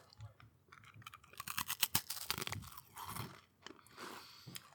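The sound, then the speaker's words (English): Crisp crunching as a crisp (potato chip) is bitten and chewed, a rapid series of sharp cracks building in the middle, then softer chewing trailing off, with no talking. “That sounds that sounds like a crisp.”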